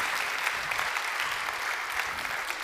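Steady, dense applause from an audience fills the space, a continuous wash of many hands clapping at an even level without pause, with no talking over it.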